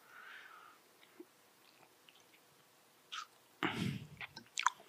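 Wet crunching of someone biting and chewing watermelon, with a few juicy bursts clustered near the end after a mostly quiet start; no talking.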